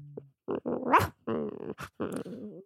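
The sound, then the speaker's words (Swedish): A person imitates a snoring, dreaming dog, voicing dreamy, muffled growls and little whimpering yips in several short bursts, fairly loud, with brief pauses between them. “Så här, hundar som drömmer.”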